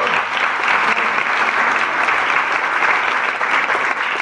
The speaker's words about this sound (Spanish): ¿Quién de aquí es invitado? Levante la mano. ¡Wow! Un aplauso para los invitados,